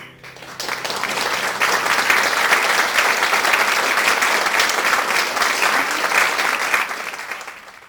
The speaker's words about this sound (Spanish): Un aplauso para el doctor